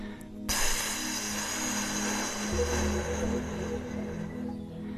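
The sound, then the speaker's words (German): A single long, steady exhalation through the mouth with loosely pursed lips, the 'lip brake' breathing exercise, an airy hiss lasting about four seconds before trailing off, with no talking. “Durch die sogenannte Lippenbremse.”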